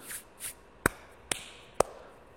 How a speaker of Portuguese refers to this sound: Porque estava tendo algum movimento ali em cima. Mas eles estão ali e eles começam a ouvir passos, passos.